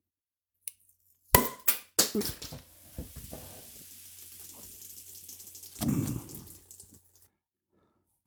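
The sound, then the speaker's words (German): A 0.33-litre swing-top bottle of Stanemer Bock, a 7% bock beer from the small Stanemer Braukunst brewery in Stanem, snaps open with a few sharp clicks and a pop that blows the cap off, then a steady fizzing hiss runs for several seconds before a brief louder rush of foam. “Ups, da hat die aber mal so richtig Dampf drauf gehabt, dass selbst, selbst der Deckel weggeweht hat.”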